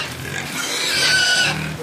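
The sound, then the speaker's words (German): Pigs grunting and squealing, a steady chorus of snorts and higher-pitched oinks lasting a couple of seconds with no one speaking. “Zurück auf Reiko Wöller Zoo. Die Schweine warten.”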